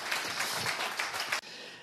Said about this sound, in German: Danke vielmals. Noch einen Applaus für Markus Müller.